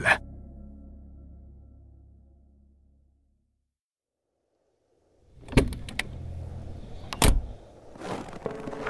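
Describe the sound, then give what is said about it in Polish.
An SUV door is gently shut outdoors in a sharp, cold winter wind, giving a soft, muffled thud and a low hum that fades out. After a few seconds of quiet come shuffling noise and a couple of sharp clicks. “Tomasz zamknął delikatnie drzwi suwa Jakuba. Wydały przy tym miękki, przyjemny dla ucha dźwięk.”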